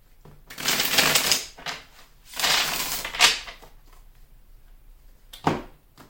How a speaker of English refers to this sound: This card keeps on shuffling around. I'm just going to set it to the side.